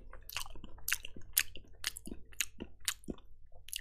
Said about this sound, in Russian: как бесит чавканье.